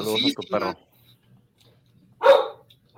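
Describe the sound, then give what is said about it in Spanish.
A dog barks: two quick barks back to back, a second and a half of quiet, then one more loud bark. “¡Cállate! saludos al perro, no digas cállate”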